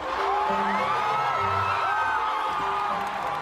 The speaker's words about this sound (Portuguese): Isso que se acabou de ouvir ao fundo é uma multidão em Bristol, no Reino Unido, pedindo que a estátua do traficante de escravos Edward Colston caia. Você consegue ouvir o pessoal comemorando quando isso acontece.